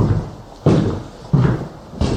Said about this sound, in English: Close that door.